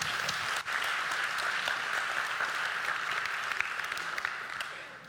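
Steady crowd applause fills the whole stretch, a dense, even wash of many hands clapping at once with a brief dip near the start, no voices over it.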